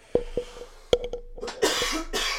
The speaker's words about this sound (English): Thank you, everybody, for uh, dealing with all, those, all that coughing. That's what you get when you get two stoners on a fucking podcast, okay?